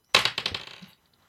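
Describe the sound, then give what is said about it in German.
A die rattles and clatters inside a dice cup in a quick burst of about half a dozen hard clicks, fairly loud, then it stops abruptly. No one speaks. “Das ist ja wirklich komisch mit diesem Würfel.”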